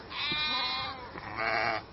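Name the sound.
sheep bleating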